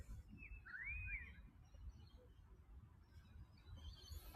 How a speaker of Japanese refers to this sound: 鳥さんも歌ってますよ。